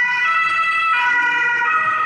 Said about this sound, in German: Das war ein Krankenwagen übrigens.